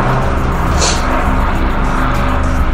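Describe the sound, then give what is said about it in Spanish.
A helicopter roars past overhead, a loud, steady mechanical drone with a low humming rumble underneath and a brief hiss partway through; no one speaks. “Estamos haciendo una pausa para que pase el helicóptero.”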